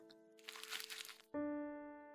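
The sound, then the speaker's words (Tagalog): A paper electricity disconnection notice crinkles and rustles for about a second over a faint steady hum, then a louder sustained musical tone cuts in and slowly fades. “Oh, anong gagawin ko dyan sa papel na yan? Disconnection notice to, ma.”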